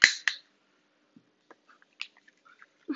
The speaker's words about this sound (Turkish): Artık 3 saat falan konuşurum ben yakmaya çalışıyorum ama çakmak yanmıyor.